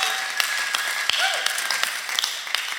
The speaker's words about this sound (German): Komm mal, wir geben uns nochmal gegenseitig einen Applaus.